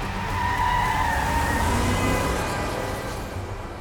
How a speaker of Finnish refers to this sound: Juoksen takaisin rullaamaan puoliksi alhaalla olevaa porttia, kun samaan aikaan Mersu kiihdyttää urku auki ulos saaresta.